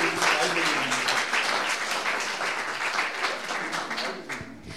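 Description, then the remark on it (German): Sustained audience applause, a dense wash of many hands clapping at a steady loud level for the whole stretch, with a faint murmur of voices beneath it. “Ein Applaus, weil die brauchen ein bisschen Ermutigung heute.”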